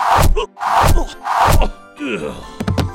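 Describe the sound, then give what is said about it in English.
Arrows thud into a target three times in steady succession, each hit loud with a pained grunt, followed by a drawn-out groan and a few sharp clicks. “I forgot you had arrows.”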